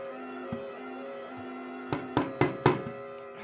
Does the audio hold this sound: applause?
no